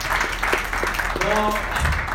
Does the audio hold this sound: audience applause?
yes